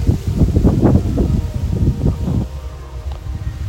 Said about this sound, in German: Boah, ein bisschen windig auf der Aufnahme, ne? Boah, super Qualität.